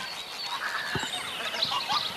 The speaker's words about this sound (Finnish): Taas menee hanhi ja siipien äänet kuuluu äsken.